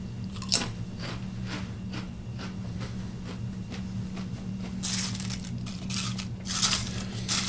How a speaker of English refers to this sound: Yeah, they're real crunchy, nice thick chip. You know, they're not too many crumbs, they're kind of intact, I'd say.